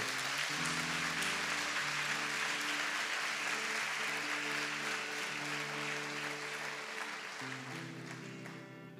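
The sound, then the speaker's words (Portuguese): An audience claps for Jesus in a dense, continuous wash of applause, with sustained low keyboard chords shifting underneath; the clapping eases off slightly toward the end. “Você pode dar um salva de palmas para Jesus, amado, por isso.”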